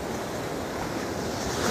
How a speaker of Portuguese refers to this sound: Imagina que está nesse lugar, na praia, aqui comigo. Respira fundo, as ondas quebrando.